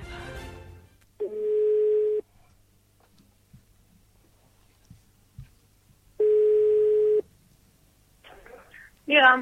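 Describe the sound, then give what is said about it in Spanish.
An outgoing telephone call placed by the radio programme Madrid en Red of Unión Madrid: two long, steady, mid-pitched beeps about a second each, separated by a few seconds of near silence, with brief voices at the start and end. “Y, hombre, yo que me gustaría más que escucháramos la segunda llamada porque, aunque mi voz no queda bien en radio, siempre hay bien no tener que hablar.”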